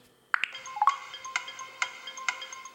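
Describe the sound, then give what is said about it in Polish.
A short electronic chime gives way to the timer of the timed game mode in the quiz game Milionaires ticking, crisp evenly spaced ticks about twice a second that seem to speed up, over a sustained tonal background, fairly quiet and with no voices. “I w tle słychać taki zegar tykający jakby coraz szybciej.”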